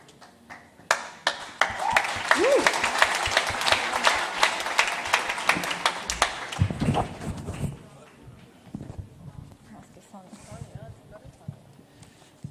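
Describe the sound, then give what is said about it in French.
A crowd breaks into steady applause for a person who has just given a testimony, dense rapid clapping lasting about seven seconds with a brief cheer, before it fades and a voice speaks over the quieter crowd. “On peut l'applaudir.”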